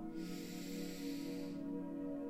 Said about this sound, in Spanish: Nuevamente vamos a inhalar, recuerda la posición de tus manos, inhala y vamos a resistir la respiración mientras yo digo Satanama. ¿Ok? Inhalo.